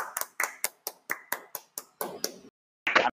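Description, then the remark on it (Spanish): Applause made of sharp, evenly spaced claps, about ten in a quick steady rhythm, then a short pause and a brief denser burst of clapping. No voices. “Vamos a dar el aplauso, por favor, a Paco Torres, que se escuche fuerte.”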